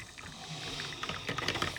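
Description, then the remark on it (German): A coffee machine runs quietly with a low hum, then breaks into a rapid, rattling series of clicks and clatters near the end, with no one speaking. “setzt euch hin und genießt das Geräusch der Kaffeemaschine?”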